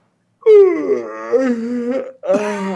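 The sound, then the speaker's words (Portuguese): A person makes a loud, drawn-out yawning sound with their mouth, a moaning voice sliding down in pitch, followed after a brief pause by a shorter second yawn. “Aí parece que você tá bocejando, entendeu?”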